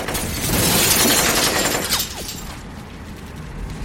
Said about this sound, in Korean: 또 다음 순간에 바로 눈앞에서 섬광이 번쩍 스쳐간다고 생각했을 때 차창이 박살나는 소리가 들렸어.